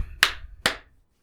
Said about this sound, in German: das waren die zwei Klatsche. Es geht los. Es geht los. Das sind drei sogar.